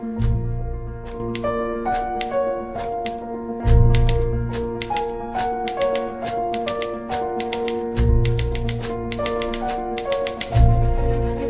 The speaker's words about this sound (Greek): Ταιριάζει συνήθως και με τις δραστηριότητες που κάνουν ε, οι, οι ήρωες στις σκηνέ που mm παίζουν. Ε, δηλαδή, άμα κάποιο σηκώνεται από τη γραφομηχανή και φευγει ναι. σταματάει και η γραφομηχανή.